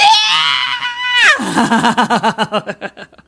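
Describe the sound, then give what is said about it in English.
A voice imitates the mother from the film The Babadook: a loud, high-pitched shrieking scream held for about a second, then straight into a rapid run of choppy, rhythmic, creepy cackling bursts, with no other sounds. “And mom just like shrieks and screams at him and then like creepy laughs.”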